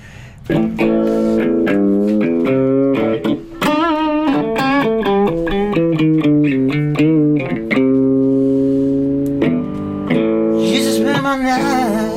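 An electric guitar run through an effects pedal plays sustained, ringing notes and short melodic runs, steady and fairly loud throughout, with no talking over it.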